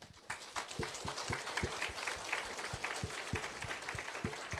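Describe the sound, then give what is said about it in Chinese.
An audience applauds steadily, a dense crackle of many hands clapping at an even loudness throughout, with sharper individual claps standing out now and then and no voices. “感谢你们的掌声，就是。”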